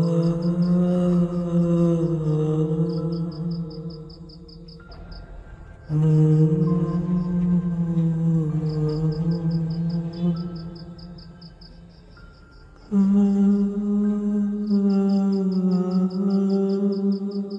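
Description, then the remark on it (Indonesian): An eerie, low humming drones in three long sustained phrases with slight pitch wavers, while a steady pulsing cricket-like chirp repeats above it throughout. No words are spoken. “Suara senandung yang aku dengar kira-kira seperti itu.”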